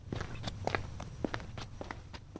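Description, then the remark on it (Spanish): Quiet, careful footsteps creep along at an uneven pace, each soft step tapping lightly over a low background rumble, with no voices present. “A su espalda, una sombra oscura se desliza con pisadas sigilosas,”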